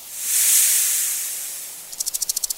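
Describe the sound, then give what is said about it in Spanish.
A snake's long, breathy hiss swells to full strength and slowly tapers as the snake approaches, then gives way to a quick run of about ten sharp rattling pulses, with no voices present. “Destapé mi rostro y descubrí que era una serpiente aproximándose.”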